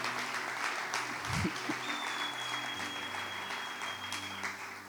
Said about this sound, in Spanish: ¿Le puedo dar un aplauso al ejemplo que estuvo bueno.